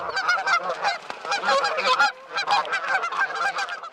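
A flock of geese honks continuously, many overlapping nasal calls forming a dense, busy chorus with no pauses.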